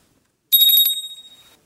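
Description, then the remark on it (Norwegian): A bright, high bell rings in a quick rattling trill, then its metallic tone lingers and fades away over about a second. It sounds clear, with no voices. “Det var bjelle, og så var det klang. Bjelleklang.”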